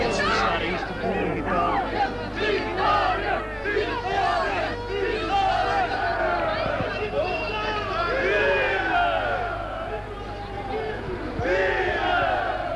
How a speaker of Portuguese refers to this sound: Eh, foi a coisa mais extraordinária que aconteceu. Saiu neste momento desta calçada do Carmo. Uma pinha humana, uma multidão tremenda.